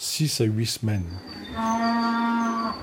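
Cattle mooing over faint summer meadow sounds in the Brie museum in Meaux: a few short, choppy lows, then one long, steady, droning moo that holds its pitch for over a second.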